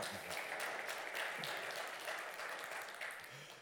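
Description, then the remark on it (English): An audience claps steadily in response to the speaker's statement that men and women are different. It is a dense wash of overlapping hand claps with no clear rhythm, sustained at an even level throughout and easing slightly toward the end. “I don't need clapping. You can.”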